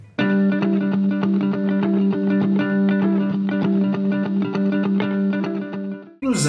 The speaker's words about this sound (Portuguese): A base da guitarra no rock and roll trouxe o padrão clássico do blues, do blues shuffle, que consiste basicamente num intervalo de quinta e sexta. Se liga.